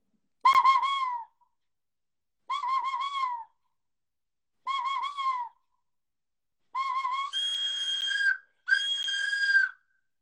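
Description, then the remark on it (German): A hunting predator lure call is blown, with the top held closed. It gives loud, wavering squealing notes: three short separate calls, then two longer, higher, harsher blasts, with no talking. “Du hältst oben zu und dann dreimal Kuh, Kuh, Kuh.”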